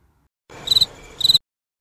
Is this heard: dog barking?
no